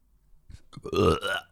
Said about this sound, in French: Il y a une madame sur Internet communique avec les, les esprits, puis elle libère, elle rote.